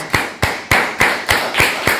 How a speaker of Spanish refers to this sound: vamos un fuerte aplauso a todas las naciones, les saludamos.